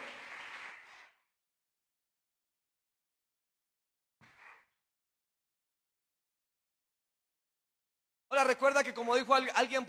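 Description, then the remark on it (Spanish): A short burst of crowd applause, given in praise of God, trails off within the first second, followed by near silence and a faint stray sound, then a man begins speaking loudly near the end. “Démosle un aplauso al Señor por eso, por favor.”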